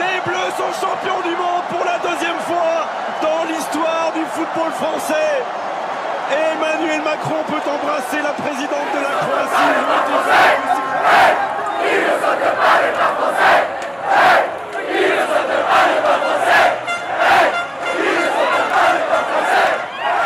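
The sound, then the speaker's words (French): A large crowd in the streets of Paris roars and cheers as France becomes world football champion for the second time, 20 years after 1998; dense overlapping shouts and whoops swell louder in the second half, with sharp bursts of yelling and clapping throughout. “À ce moment-là, la France est championne du monde pour la deuxième fois de son histoire, 20 ans après 1998. C'est l'euphorie, même moi je suis dehors à faire la fête dans les rues de Paris”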